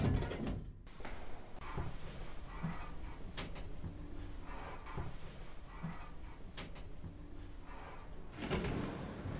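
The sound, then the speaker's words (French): An elevator's sliding door rumbles open with a steady low hum and faint rattling, a few soft clunks and thuds punctuating it, moderately loud, with no one speaking. “La porte de l'ascenseur s'ouvre.”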